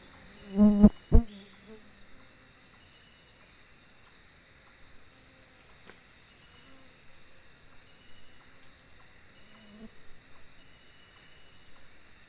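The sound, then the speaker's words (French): Outdoor forest ambience filled with a steady, high-pitched insect drone, with a couple of sharp knocks near the start and occasional faint rustles and distant calls in the background. “On va écouter, si vous permettez Philippe, on va écouter un petit extrait de, de, votre film et, et, de la forêt, justement, des bruits de la forêt.”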